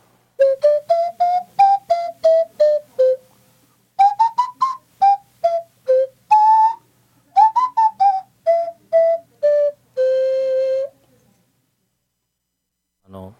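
A breathy, whistle-like wooden hanabue nose flute, a rectangular flute with a rounded part held to the nose, blown with nose breath while the tongue shapes the notes without fingers, plays a lively tune of short, pitch-sliding notes in quick phrases, ending on a longer held tone, clear with no talking.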